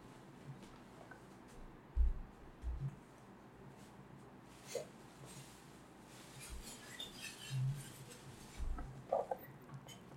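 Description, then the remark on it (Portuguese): Faint, intermittent crinkling and rustling of a plastic bag that a dog has found and is handling, with scattered soft thumps and scuffs. No one speaks. “Bem, esse barulho de fundo é meu cachorro. Ele achou um saco plástico.”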